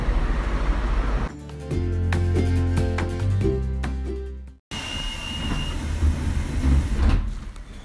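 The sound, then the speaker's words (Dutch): Loud mechanical sounds of the Bilbao funicular railway car, a small train that climbs steeply about 300 meters: a steady rumble with humming tones and clicks, a brief cut, then continued rolling rumble with a faint high whine. No one speaks. “We zijn nu in de funicular van Bilbao. Dat is een soort treintje, wat 300 eh, meter stijl omhoog gaat en een prachtig uitzicht over de stad.”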